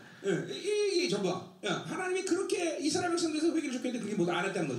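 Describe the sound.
A voice imitates someone weeping with a wailing, ostrich-like cry, a strained warbling lament that rises and falls in two long bursts with a short break between, loud.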